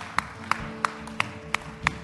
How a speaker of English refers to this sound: Let's clap our hands to the Lord because He is worthy.